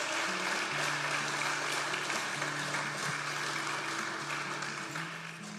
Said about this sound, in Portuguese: Aplauda ao Senhor porque Ele é Deus.